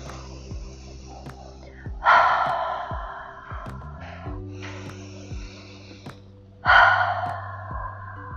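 Slow, soft human breathing: a few airy inhales and exhales, the two strongest at regular intervals, over a quiet, sustained musical drone.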